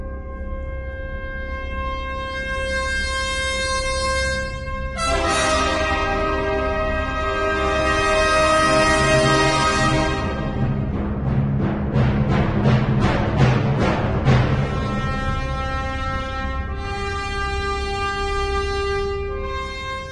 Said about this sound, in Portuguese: Paine, eu não sou muito chegado a trabalhar com música ambiente não, viu? Mas esse momento especial bem que merecia aquela música 2001 Odisseia no Espaço, hein? Que tal você tocar aí?